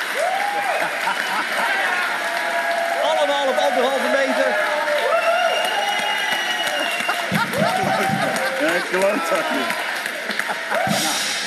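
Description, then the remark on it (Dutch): A crowd applauds steadily for the whole stretch, welcoming an editor back for his comeback, a dense, even wash of clapping with some cheering mixed in, while a couple of voices talk loudly over it. “Het applaus ging lang door”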